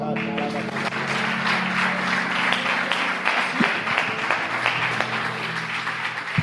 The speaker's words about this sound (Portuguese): A igreja aplauda bem.